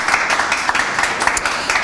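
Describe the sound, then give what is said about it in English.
A steady round of applause from a crowd for a newly elected postgraduate officer at an election results announcement, dense overlapping claps forming a continuous bright wash of sound with small irregular peaks, fairly loud and unbroken for the whole stretch. “plentiful and well deserved round of applause for”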